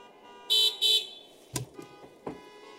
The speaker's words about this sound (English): I've had more ladies say, I love going to church in the parking lot. I just reach on over and honk the horn. Your wife, Brother Cooper, was really honking the horn right there.